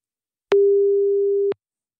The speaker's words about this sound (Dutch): We gaan eens even bellen met, met Bart-Jan. Komt-ie.